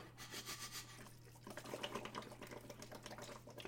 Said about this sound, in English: Blowing bubbles in your drink.